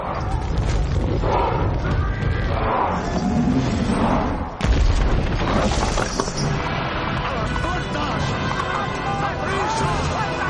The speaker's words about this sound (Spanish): Los trolls tiran hacia atrás de las cadenas del ariete, sueltan y este hace tambalear la puerta de la ciudad.